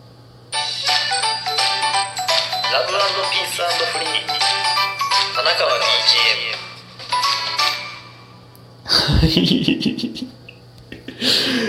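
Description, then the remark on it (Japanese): A bright, chiming original music jingle, created by an app update, plays loudly for several seconds, then breaks off for a short spoken tagline, 'Love Peace Free', by a man's voice with a final burst of sound. “それが僕だけのアップデートだというのを気づかずに、オリジナルジングルができてるのを今日気づきまして、えー、いや、それではね、えっと、早速、聞いてみてほしいと思います。”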